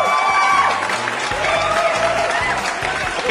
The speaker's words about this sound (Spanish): Aplausos maldita sea.